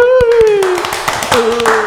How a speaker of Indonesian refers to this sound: Tepuk tangan lagi ya.